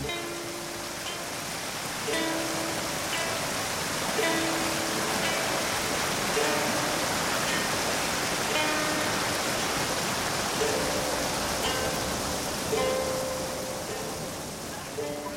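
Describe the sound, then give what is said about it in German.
A steady, full roar of rushing water from a waterfall beside a steep mountain path fills the scene without pause, with faint tonal sounds and murmuring voices drifting over it. “schleppen sich über einen steil abfallenden Bergpfad, der an einem Wasserfall vorbeiführt”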